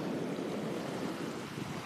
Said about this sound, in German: Ihr könnt hören, wie das Meer rauscht.